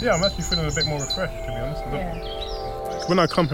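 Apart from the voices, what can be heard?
birds singing outdoors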